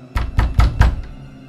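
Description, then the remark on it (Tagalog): Four firm, evenly spaced knocks on an apartment door, heavy and thudding, followed by a faint fifth tap as the sound trails off into quiet. “nahinto si Mikael sa pagsasalita sa harap ng cellphone nang makarinig siya ng pagkatok sa pinto ng kanilang apartment”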